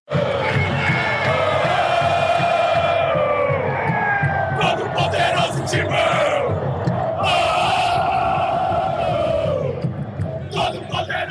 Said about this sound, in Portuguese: Corinthians aos 30 minutos empata o jogo e aos 39 vira para 2 a 1. Agora a torcida do Santos sente a pressão e pensa: será que os meninos vão segurar? Torcida do Corinthians inflama o Morumbi,